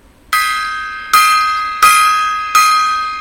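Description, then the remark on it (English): A gong is struck four times at a steady pace, each loud, bright metallic hit ringing out and fading before the next lands. No one speaks. “gong time.”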